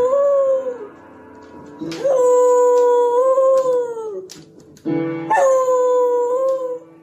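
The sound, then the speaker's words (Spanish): A female dog howls in long, wavering, sustained tones, three drawn-out howls in a row, while piano notes sound beneath them. The howling is fairly loud, with no talking. “A ver, espérame, tú, este, escuchemos a la perrita.”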